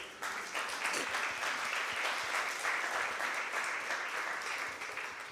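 An audience breaks into sustained applause for the Lord, a dense wash of many hands clapping at a steady, fairly loud level for several seconds before easing off slightly at the end.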